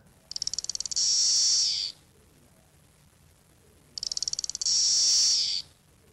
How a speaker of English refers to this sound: Did it sing, that lone cicada? Uh, yeah, yeah, it was singing.